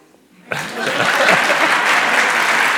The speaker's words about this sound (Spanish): Y ahora viene el aplauso.